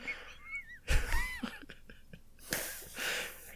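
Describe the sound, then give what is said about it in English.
A person vomiting, heard over a video call: a forceful retching sound with a heavy wet gush, then a second rougher heave with spattering, preceded by faint squeaky wheezes. No voices speak. “It turned out Pukey Pale threw up with a splash.”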